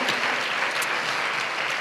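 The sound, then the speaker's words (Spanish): A crowd claps steadily, a dense, continuous wash of applause at even loudness throughout, with no voices standing out above it. “Y si, si es un aplauso para mi esposa, que sea más fuerte, ¿cómo no?”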